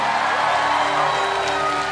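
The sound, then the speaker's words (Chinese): An audience cheering loudly and continuously for Jesus, a dense wash of many voices shouting and whooping with steady intensity throughout, no clear pauses or individual speech standing out. “可以，我们给耶稣更大的欢呼，好不好？”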